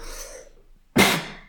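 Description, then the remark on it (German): A single sharp sneeze bursts out, loud and sudden, following a soft breathy intake; no talking around it. “Entschuldigung. Gesundheit.”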